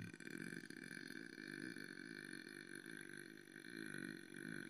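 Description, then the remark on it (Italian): A long, loud, continuous burp rumbles, a deep croaking drone held steadily for several seconds without a break. “Senti, cioè è un rutto che si può, fe- si può secondo io me si può ingannare.”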